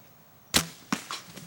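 A hunting bow releases with a sharp, loud snap as an arrow with a broadhead is shot at a doe, then a second crack follows about half a second later as the arrow strikes, trailing off into faint rustling. No one speaks.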